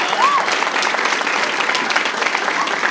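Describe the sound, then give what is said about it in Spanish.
An audience claps steadily throughout, a dense, even patter of many hands with a brief whoop or cheer rising early on, no pauses in the applause. “No le aplaudan mucho, porque capaz está confundiendo redes sociales.”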